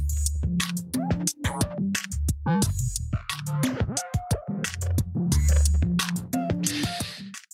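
A loud electronic factory preset pattern plays on its own from a Drambo modular groovebox, with punchy, steady drum hits and crisp percussive clicks over a stepping, buzzy synth bass line.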